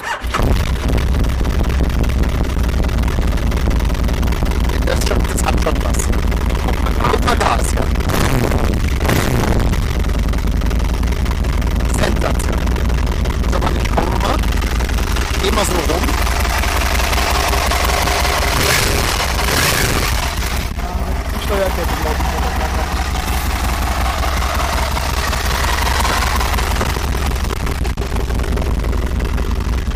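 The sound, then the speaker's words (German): An Italian moped engine is started and runs loud right beside the listener for the whole stretch, a steady buzzing drone with brief revs and surges partway through and no talking. “So, wir befinden uns hier in direkter Reichweite von dem äh, italienischen Fahrrad mit Hilfsmotor.”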